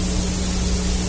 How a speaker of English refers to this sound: Now, I'm sure you all recognize this. This is called Hiss